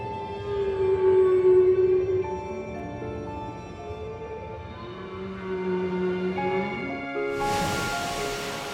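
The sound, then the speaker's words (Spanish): Whale song from whales off the African coast: long, drawn-out tonal moans slide slowly up and down in pitch, layered with rich harmonics, loud and continuous, before a sudden burst of hissing, splashing noise at the end. “Tal vez, de todos sus animales, los más espectaculares son las ballenas.”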